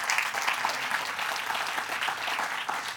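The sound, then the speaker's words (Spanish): A church audience claps together for God during an evening service in a sustained, dense burst of applause, many hands creating a steady, bright crackle that holds at an even loudness throughout, with no voices standing out. “Den un aplauso a nuestro Dios en esta noche.”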